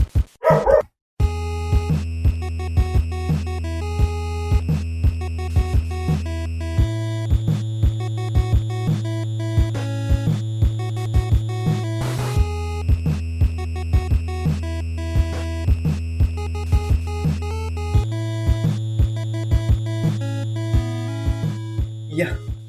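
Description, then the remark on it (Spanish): A pet dog barks again and again in bursts over a steady droning music bed that continues the whole time, with no one speaking. “Justo mi perro se pone a ladrar.”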